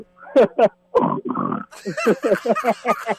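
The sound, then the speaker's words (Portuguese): A person imitates a pig on request, letting out a rapid string of nasal, snorting oinks and grunts, fairly loud, with a couple of short bursts first and then a quick rhythmic series. “imita um porco aí pra eu ouvir, vai.”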